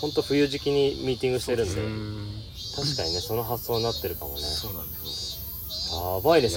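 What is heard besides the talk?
cicadas chirping loudly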